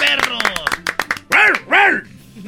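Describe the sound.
A person imitates a dog barking, giving two loud, drawn-out woofs in quick succession after a burst of brief vocal sounds.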